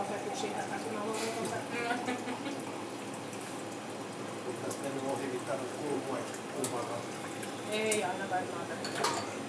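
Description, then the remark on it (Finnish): More water is poured steadily for several seconds with a continuous splashing, gurgling rush, while people talk quietly in the background. “Muistatko tässä vettä vielä Joo.”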